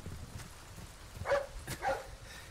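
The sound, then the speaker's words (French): A dog barks twice in quick succession, short sharp yelps at moderate volume over a low background rumble, with no one speaking. “Ah bah enfin Il est où le chien Je l'entends mais je le vois pas.”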